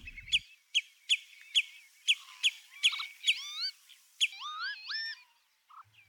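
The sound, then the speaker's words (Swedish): Northern lapwing calls: a run of about eight sharp, evenly spaced notes, then several wheezy, slurred whistles that rise and fall, clear with no voices. “Inte minst i texten om tofsvipan, orossjälen bland vadarna.”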